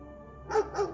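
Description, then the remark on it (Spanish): A dog barks twice in quick succession, sharp and forceful yet somewhat distant, after a brief stretch of low background hum. “A lo lejos escuchan violentos ladridos.”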